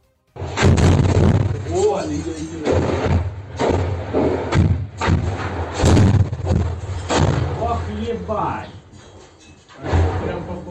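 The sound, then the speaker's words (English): Heavy artillery shelling pounds the Azovstal steel plant in Mariupol, Ukraine, during the war in a relentless, loud barrage, deep booms and cracking blasts arriving every second or so over a constant low rumble. “That's the sounds of relentless shelling happening right now at the Azovstal plant in Mariupol, Ukraine.”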